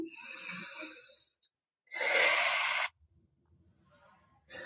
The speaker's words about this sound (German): Also einmal, vielleicht wollt ihr alle einmal mitmachen, wir atmen einfach mal durch die Nase ein.